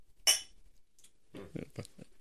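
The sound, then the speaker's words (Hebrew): Whisky glasses clink together in a toast: one bright, ringing chime, followed by a few softer, duller knocks and clatters as the glasses are handled. “ואני בדיוק מזגתי לנו וויסקי, בוא, לחיים”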